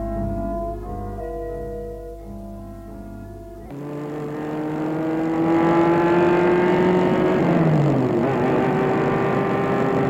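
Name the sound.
car driving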